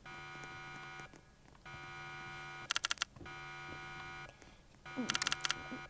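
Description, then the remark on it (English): An alarm blares a steady, harsh buzzing tone in long repeated blasts separated by short pauses, with a couple of sharp rapid pulsing bursts in between, and no talking. “Our alarm is going off.”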